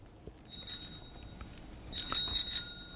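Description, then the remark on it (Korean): A bicycle bell rings twice, first a lighter ring and then a brighter, longer burst of metallic dings, clear with no voices; the sound comes from the middle of a song. “자전거 벨소리군요.”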